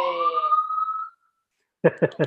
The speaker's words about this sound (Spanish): disculpa la, ambulancia. No te preocupes.